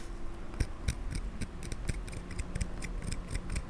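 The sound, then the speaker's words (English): Quiet scraping and crisp little clicks of a dentistry tool carving into wet material, which carves out easily, repeated in quick, irregular strokes over a faint low hum, with no voices. “Yeah, I like the sound of the the one that the part that's really wet. You can hear how easily it's carved out, and then like when you're carving against something dry.”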